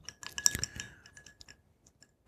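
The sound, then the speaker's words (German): Ice cubes clatter into a glass as a drink is served on ice, a quick burst of bright, hard clinks, then a few sparse, fainter ticks as they settle, fairly quiet. “Es kommt besser auf Eis.”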